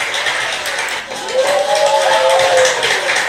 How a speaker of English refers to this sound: Wow, actually getting some clapping. Come on, no one's really clapping me here. There we go. That's that's the crowd that I know I know and I love.